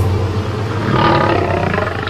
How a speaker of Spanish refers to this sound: Pero entonces, un perro gigantesco apareció detrás del brujo. Los aullidos del animal hicieron temblar de miedo al chamán.